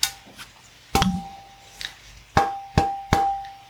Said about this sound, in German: Auch das macht dieses hübsche Geräusch, wenn ich die Sicherungsleiste abnehme.